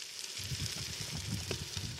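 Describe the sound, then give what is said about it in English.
Steady sizzling of an onion from the garden sautéing in a hot pan until soft, a constant bright hiss dotted with soft crackles and occasional louder pops, with no voices. “So we started off um, with cooking the onion. The onion is also from the garden here. Uh, just saute it until it's soft.”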